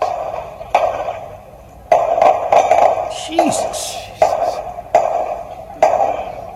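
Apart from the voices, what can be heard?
gunshots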